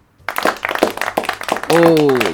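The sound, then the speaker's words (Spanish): A family claps sparsely and unevenly for about a second and a half at a live stand-up comedy show, the claps fairly loud, before a voice cuts in at the end. “esa es la familia aplaudiendo.”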